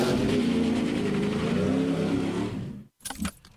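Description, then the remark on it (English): Race car engines rev in a loud, continuous roar for nearly three seconds, then cut off abruptly, followed by a brief metallic rattle. “Start your engines.”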